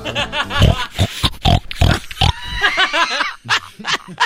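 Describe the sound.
A voice imitates a pig, making a rapid string of loud grunts and snorts followed by a few higher, squealing oinks, with no other talking.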